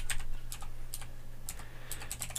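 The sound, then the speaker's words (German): Quick, uneven bursts of keystrokes clatter on a computer keyboard as someone googles something, fairly quiet, with clusters of rapid taps near the end over a steady low hum. “Ich google ja, das jetzt äh, kurz.”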